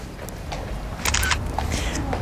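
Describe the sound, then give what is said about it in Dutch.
A borrowed mobile phone camera snaps a photo: a quick burst of crisp shutter clicks midway through, standing out over a low, steady background rumble. “Hier, hoe werkt die? Hoe werkt die camera?”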